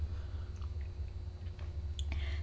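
Someone takes a quiet sip of hot, bitter, unsweetened coffee fresh from the coffee maker, with a few soft wet mouth clicks and slurping sounds over a steady low hum. No one speaks.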